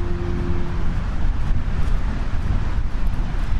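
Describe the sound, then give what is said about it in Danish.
Steady wind roars and buffets with a deep, rumbling low end, filling the scene continuously and fairly loud, on the North Sea (Vesterhavet) coast at Hvide Sande, Denmark; no voices. “Jeg står ved det store Vesterhav.”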